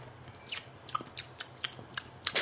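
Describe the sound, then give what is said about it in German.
The plastic sports cap of a drink bottle is worked open by pulling up its outer ring, with a quick series of sharp clicks and snaps, about eight in a row, irregularly spaced, with a louder crackle at the end and no talking. “Oder oh, Klick, kann man so den Außenring hochziehen. Es ist wie bei so einer Sporttrinkflasche tatsächlich.”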